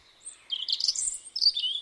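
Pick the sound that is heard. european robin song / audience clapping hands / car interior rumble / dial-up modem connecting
european robin song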